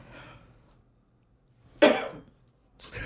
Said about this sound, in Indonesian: karena … masih batuk